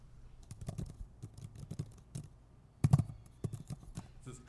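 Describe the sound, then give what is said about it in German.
Rapid, loud clacking of computer keyboard keys, with irregular bursts of keystrokes and a few sharper heavy presses near the end. “Laute Tipper, das ist wie, wie ein, aber ich glaube, man hört es gar nicht insofern.”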